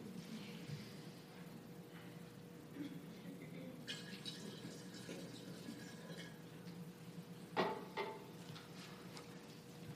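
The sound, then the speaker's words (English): Water pours steadily into a container, a soft continuous trickle with brighter splashing in the middle and a brief louder splash near the end, moderately quiet. “that doesn't mean you can't come up and pour water.”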